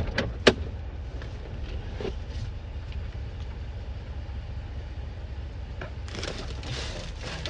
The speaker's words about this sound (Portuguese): eu, vou ter, eu vou ter que descer do carro com esse carrinho um ah, pouquinho ah, alto. Peraí.